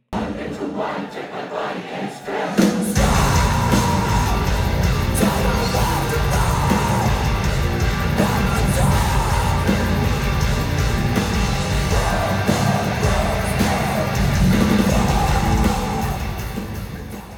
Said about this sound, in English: Just with those few notes, you can hear why this is a popular song. It's got this really infectious beginning, then it jumps into the screaming part, which is just so mesmerizing.